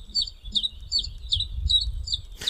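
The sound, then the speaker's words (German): A bird's song plays back from an audio bird book: about six bright, high chirps in a steady rhythm over a low hum, cut off by a short burst of noise. “Es klingt so ein bisschen eigentlich auch nur wie jeder Vogel.”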